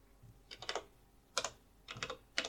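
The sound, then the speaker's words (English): Fingers tap quickly on the buttons of a lighting control desk in the technical control room of a theatre, leaving short bursts of crisp clicks with brief pauses between. The pressing is fairly quiet, with no voices. “That sound is the sound of dexterous fingers navigating across the buttons of the lighting control desk.”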